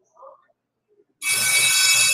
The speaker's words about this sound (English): Oh God, there goes the alarm again.